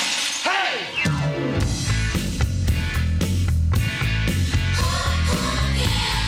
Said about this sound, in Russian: Жесткий гитарный скрежет, сильные социальные тексты, кожаные куртки, волосы, торчащие в разные стороны – Такими были новички фестиваля.